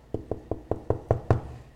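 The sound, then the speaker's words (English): A quick series of seven solid knocks on a wooden door, evenly spaced, each rap a little louder than the last, with no voices. “Jesus is knocking on the door.”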